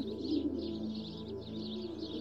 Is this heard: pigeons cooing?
yes